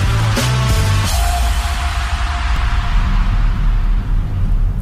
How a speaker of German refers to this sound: Was man hier hört, ist zum einen ein relativ lautes Elektroauto-Warngeräusch und zum anderen ein Dreizylinder Benziner. Und dieser Kleinwagenmotor steckt unter der Haube des neuen Renault Espace.